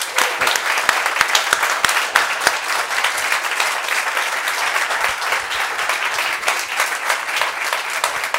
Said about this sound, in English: It's been such a privilege to interview you in front of everybody. I hope you guys have all enjoyed that. Let's give him a round of applause. Thank you.